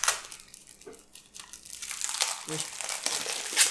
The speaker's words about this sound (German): Knitscher, Knitscher. Man hört, ich packe jetzt den Kartenstapel aus. Das sind Rätselkarten, die sind mit äh, Buchstaben beschriftet.